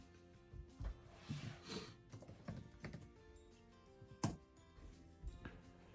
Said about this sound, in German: Also schauen wir mal, tippen wir das mal ein.